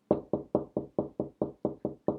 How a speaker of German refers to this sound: Und ich will ein bisschen mehr die Studenten einmal ein bisschen appreciaten, dass sie so viel daheim hocken. Da gibt es einmal einen Applaus von mir.